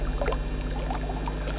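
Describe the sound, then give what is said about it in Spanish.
Water pouring in a steady, continuous splashing stream for a couple of seconds, with a low constant hum underneath and no voices. “Agua.”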